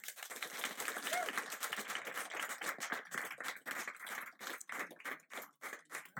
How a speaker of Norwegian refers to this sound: Skal vi gi et applaus?